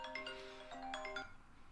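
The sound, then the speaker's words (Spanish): A phone ringtone plays a short melodic chime, a few bright electronic tones stepping up and down in quick succession, with no voices over it; the phone rings even though it was set to silent mode. “Fíjate que no sé, tenía el teléfono en silent mode, pero como que, como que no le importó.”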